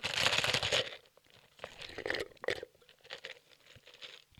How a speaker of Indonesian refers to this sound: saya tak nyeruput dulu.